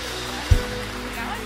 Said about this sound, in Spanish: Póngase de pie, denle más fuerte el aplauso al Señor.